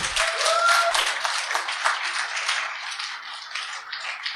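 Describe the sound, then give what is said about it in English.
A crowd applauds three people steadily, a dense wash of many hands clapping at once that stays fairly loud and even for several seconds, with no voices standing out. “Should we give all three of them a big round of applause again?”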